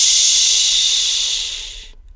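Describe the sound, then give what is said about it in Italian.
A single long, loud shushing hiss, broad and breathy, held steady for nearly two seconds before cutting off abruptly into silence. Likely a voice making the sound. “E al mio fuoco ho detto Shh!”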